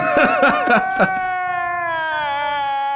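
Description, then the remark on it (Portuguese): An exaggerated, comedic meme crying sound: a few quick stuttering sobs, then one long, drawn-out wavering wail that holds to the end. It is loud, with no other voices. “Eu tava falando desse cara aí, desse choro aí, coloca aí, ah.”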